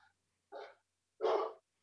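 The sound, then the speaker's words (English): A dog gives two short barks about half a second apart, the second louder and fuller, with quiet in between and no talking. “Oh my god, there's a dog. Oh, we got a dog over there.”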